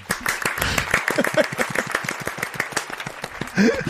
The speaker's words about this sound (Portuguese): Por favor, palmas